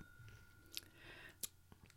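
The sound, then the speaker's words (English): Crisp crunching as someone bites into a dessert topped with little pink candy balls and a peanut butter and cream icing, two sharp crunches about a second apart over quiet, faint mouth noise. “Obviously, there's going to be more crunch because of the beautiful little pink balls.”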